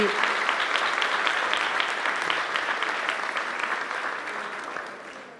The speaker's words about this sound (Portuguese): Vamos dar uma salva de palmas para eles, gente.